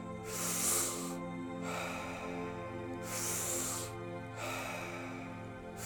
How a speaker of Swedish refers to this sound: Rond nummer ett. Andas in Andas ut. Andas in, andas ut.